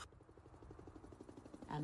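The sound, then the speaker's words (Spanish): A helicopter's rotor thumps in a fast, steady rhythm, a continuous chopping drone at moderate loudness that swells slightly toward the end before a brief tonal sound cuts in. “y el ruido de un helicóptero.”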